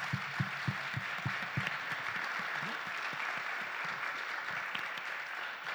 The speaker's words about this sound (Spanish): Entonces, así es, un aplauso.